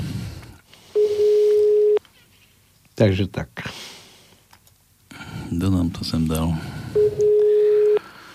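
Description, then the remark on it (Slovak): Telephone line tones as a phone number is dialed: two steady, one-second electronic beeps several seconds apart, clear and fairly loud, with a person talking briefly between them and some keypad-like clicks. “Aj, aj jedno číslo telefónne.”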